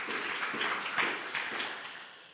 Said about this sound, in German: Ja. Kann man auch mal klatschen.